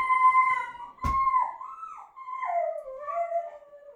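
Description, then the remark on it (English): A dog named Rosie lets out a long, wavering howl that slides up and down in pitch, breaking into whiny, vocal moans, with a brief thump partway through, wanting to be let out. No talking. “For those of you that don't know, Rosie just said, "Daddy doesn't groom the dogs; Mommy does." and she wants us to stop talking and let her out.”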